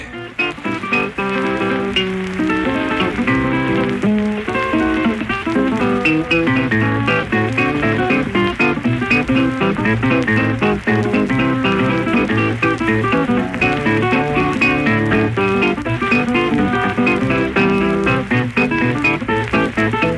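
An old ragtime blues record plays on its own on the radio, going out to a listener in Amherst, a busy plucked guitar picking a bouncy, steady rhythm with bright, quick notes over a thumping bass line, at a constant moderate volume.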